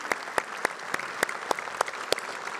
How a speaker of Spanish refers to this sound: Ok, se aplaudió.